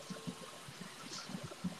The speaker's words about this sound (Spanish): Eh, ¿Tú escuchas mucho ruido o...? Se escucha como si estuvieras poquito bajo el agua.